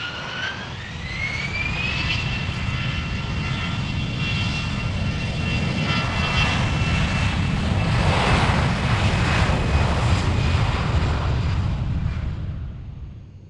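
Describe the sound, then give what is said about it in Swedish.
A jet airliner's engines spool up into a loud, sustained roar with a rising whine in the first seconds, then a steady rushing thunder that fades slightly at the end. No voices. “Vi hoppar in i ett flygplan och sticker iväg.”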